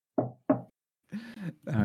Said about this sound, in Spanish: Toque ah. madera.